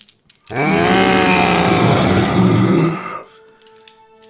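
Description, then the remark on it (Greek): A person voices a long, loud monster roar for a huge zombie rising slowly to its feet, a rough, growling bellow lasting about two and a half seconds before trailing off into quiet. “Ακούτε ένα τεράστιο μουγκριτό καθώς ο Τζόνι σηκώνεται ως ζόμπι”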